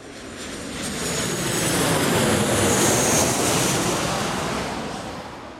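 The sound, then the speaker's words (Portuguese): A broad, roaring aircraft engine of a passenger plane taking off swells steadily louder, peaks midway, then slowly fades as the plane powers up and climbs away. No voices. “Bom, o Michael, o Frank e o Mo e vários outros passageiros, né, se acomodaram ali nos seus assentos e esperaram o avião decolar.”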